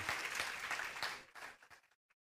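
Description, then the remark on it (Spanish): A crowd applauds for Jesus with dense, steady clapping that thins to a few scattered claps and dies away after about two seconds, leaving a final lone clap. “Dale un aplauso a Jesús.”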